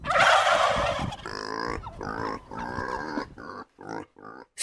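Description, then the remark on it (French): Farm animals: pigs grunting and turkeys gobbling, opening with a rough, noisy burst, then a run of choppy, warbling calls broken by short pauses, fairly loud throughout. “La voilà donc compagne de certaines filices qui gardent les dindons avec les gardeurs de cochons.”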